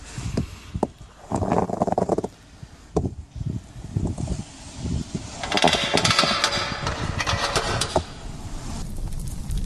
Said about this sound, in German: Das Lagerfeuer brennt. Wunderbar.